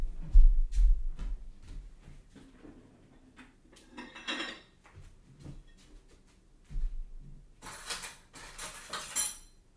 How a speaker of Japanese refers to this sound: パスタ完成しましたので、お皿に出してみます。